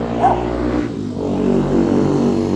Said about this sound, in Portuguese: Deixa eu passar a moto.